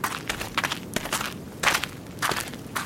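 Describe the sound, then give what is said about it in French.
Several people walking together to sit in the shade of a tree in heat over 40 degrees, their footsteps crunching softly on dry ground in an uneven, overlapping rhythm, moderately loud, with no talking. “La petite bande alla s'asseoir à l'ombre d'un arbre un peu plus loin.”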